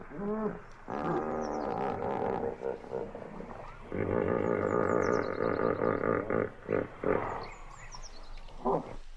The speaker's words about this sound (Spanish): Soy Ivonne y digo que son hipopótamos.